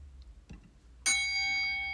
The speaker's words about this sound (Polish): Walę dzwonek i przechodzimy do tematu głównego